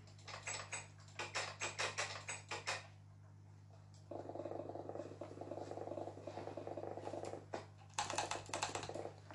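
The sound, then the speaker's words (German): Rapid bursts of computer keyboard clicking, fairly loud, with a steady held-down hum in the middle stretch before another flurry of fast key mashing at the end. No talking. “Also so klingt es, wenn ich gedrückt halt und so klingt es, wenn ich ballert halt.”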